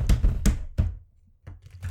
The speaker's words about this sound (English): You know what? Let me just r- rummage through my drawers.